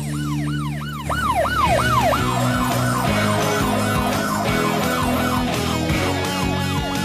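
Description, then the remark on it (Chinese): The siren of Chase's (阿奇) drone, with all its sounds switched on in the snow as darkness nears, wails loudly in repeated rising-and-falling sweeps, then shifts into a quicker, pulsing electronic pattern with steady underlying tones. No one speaks. “天天， 猪猪找到了，跟着阿奇无人机的警笛走。”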